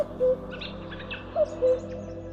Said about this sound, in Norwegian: 16. mai Gjøken.